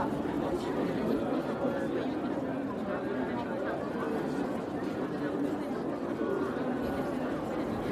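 A crowded bar fills with a deafening, dense, steady murmur of many overlapping voices, no single speaker standing out, the babble holding constant from start to finish.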